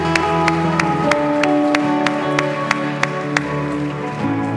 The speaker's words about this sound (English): Can we give these four people that raise their hand a huge round of applause? Yeah.